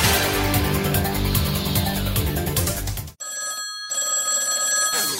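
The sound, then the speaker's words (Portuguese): A telephone rings with a bright, electronic trill in repeated bursts, following a loud stretch of busy music, opening the 'Telefone da Antena da Barata' segment; the ring stands out clearly. “Telefone da Antena da Barata.”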